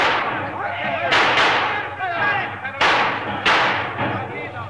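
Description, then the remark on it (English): Gunfire as bandits raid a train stopped by a boulder on the tracks in the desert about 50 miles from Perla: several sharp gunshots crack out at irregular intervals, about four loud bursts, over a steady rumble and excited shouting voices, like a rough gunfight from an old western. “Hey, save your bullets, Mr.”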